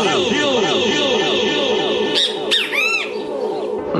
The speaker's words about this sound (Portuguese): Dentro dessa abertura da retrospectiva, já trouxe um assunto muito polêmico que teve esse ano, que foi o sabiá. Esse canto do sabiá que, que aborreceu tanta gente, né?